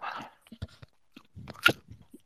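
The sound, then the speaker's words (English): Someone eating with a fork bites into crunchy food and chews, with irregular crackly crunches and one sharper, louder crunch toward the end. No talking. “I'll take another bite. I'm using a fork to eat this item.”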